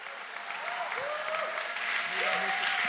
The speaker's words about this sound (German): Und ich schlage mal vor, wir geben ihm mal keinen fränkischen Applaus, sondern einen himmlischen Applaus und heißen ihn mal ganz herzlich willkommen in unserer Mitte.